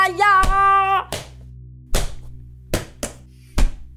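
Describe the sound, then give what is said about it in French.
A child kicks his football as hard as he can six times, each a sharp, dull thump at an irregular pace. A steady, wavering high tone plays over the first second, and a low hum runs underneath. “Comme personne ne lui dit toujours rien, il sort son ballon de football et tape dedans aussi fort qu'il peut.”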